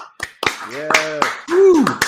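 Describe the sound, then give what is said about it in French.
A handful of sharp, irregular claps ring out, mixed with voices calling and a rising-falling whoop over the top, like a small burst of cheering applause as a guest representing Hauts-de-France is introduced. “sous vos applaudissements.”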